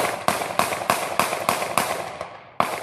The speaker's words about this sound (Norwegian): Åtte skudd.